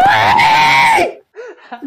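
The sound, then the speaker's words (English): A voice lets out a loud, shrill, sustained scream for about a second, mimicking kids screaming on Xbox Live, then trails off into a few short, quieter vocal sounds. “They're not like the kids on Xbox Live that just start screaming.”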